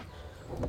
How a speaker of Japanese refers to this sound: この真ん中のドアを開けるとお外のバルコニーになっていますよいしょちょっと隙間があって